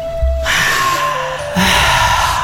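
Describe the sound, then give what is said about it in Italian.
A long, deep breath drawn in during a group breathing exercise, a steady airy rush lasting a couple of seconds and swelling louder toward the end, with no talking. “stabiliamo la connessione con noi stessi, tutti insieme, e pronunciamo ispirando, respira- respirate, respirate.”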